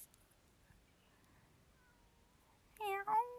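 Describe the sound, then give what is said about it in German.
After a few seconds of near silence, a cat lets out a loud, drawn-out meow, rising and falling in pitch, with a brief second burst right after it; the cat wants to be let in. “Aber hör, oder hört man sie, weil sie miaut jetzt auch und will hier rein?”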